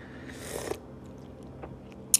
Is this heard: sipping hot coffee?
yes